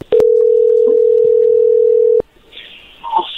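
A steady, loud single-pitched telephone dial tone hums for about two seconds after a click as a phone call is being placed, then cuts off abruptly, followed by faint line noise and a brief murmur.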